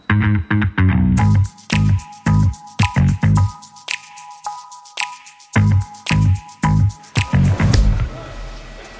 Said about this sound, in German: Ihr merkt es an der Geräuschkulisse, wir sind mittlerweile in der Produktionshalle